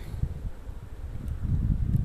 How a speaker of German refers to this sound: Und schau den Enten hier zu und wahrscheinlich hörst du es auch ein wenig vom Wind her rauschen.